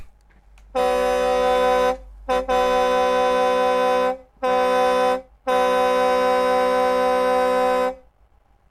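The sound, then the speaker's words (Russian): A loud car horn honks in a series of long blasts with short gaps between them, sounded as a demonstration during a live radio broadcast, ringing out alone with no voices. “Тема нашего сегодняшнего разговора – клаксон, как его использовать”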